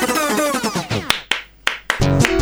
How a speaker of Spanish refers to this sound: Más aplaudir, loco. Pongan aplausos grabados.